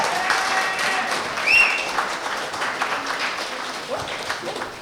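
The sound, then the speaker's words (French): An audience at a benefit evening for the Factory applauds steadily, a dense wash of many hands clapping at a fairly loud, even level, with a brief whistle rising above it partway through. “Applaudissez-vous.”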